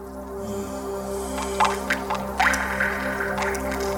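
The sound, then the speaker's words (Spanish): A handful of water drips plink irregularly, each a short bright drop, over a steady low humming drone that continues throughout. “yo traigo aquí las gotitas de agua a café con gotas”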